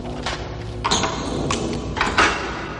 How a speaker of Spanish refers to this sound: Guillermo aprieta las letras Q y R de la palabra Quatuor. El resorte funciona y abren la puerta.